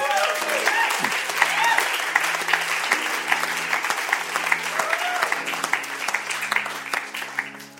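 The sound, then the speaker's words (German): An audience at a church service applauds steadily after a prayer, dense overlapping claps filling the whole stretch at a fairly loud, even level, with a few faint voices and cheers mixed in. “Hey, und ihr Lieben, ja, genau, Applaus für die.”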